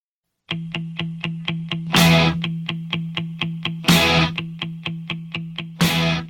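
New wave rock music with a driving, even eighth-note pulse over a sustained low tone, punctuated by crashing cymbal hits roughly every two seconds; loud, close and purely instrumental.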